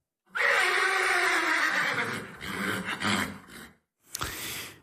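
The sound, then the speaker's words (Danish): A horse lets out a long, loud whinny lasting a few seconds, pitch sliding down, then a short pause and a final snorting burst, with no talking. “Men den sidste dag, vi var der, fik vi videre de her heste.”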